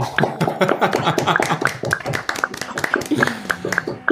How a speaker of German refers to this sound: Ähm, antwortet doch gerne mal mit einem Klatschen, wenn ihr uns hören könnt. Dafür müsstet ihr euch unmuten.